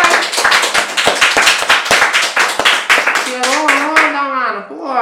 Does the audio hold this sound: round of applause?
yes